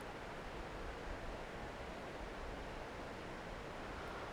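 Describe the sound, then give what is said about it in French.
A steady rush of the Sorgue river flowing near its source at Fontaine de Vaucluse, a dense, even wash of sound with no breaks or changes in intensity throughout, and no voices. “Je vous parle depuis la fraîcheur de cette eau, son émeraude moirée les feuilles qui tombent à sa surface en tourbillon.”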